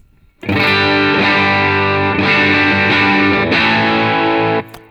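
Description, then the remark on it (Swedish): A loud, saturated electric guitar chord rings out through a distortion pedal set with volume fully up, gain at 10-11 o'clock and spectrum (tone) just past five, held for about four seconds with a couple of re-struck accents, then cut off abruptly. No voices. “Volym rakt upp. Gain klockan 10-11 och spektrum eller ton som den heter här då vid fem över.”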